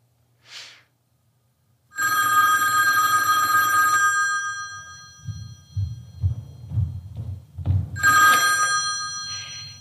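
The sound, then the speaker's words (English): A telephone bell rings loudly in two long bursts separated by a pause filled with low thumping and rustling, preceded by a brief soft hiss. “I am not getting it. That means it's a man. Stop it. I'll unplug you.”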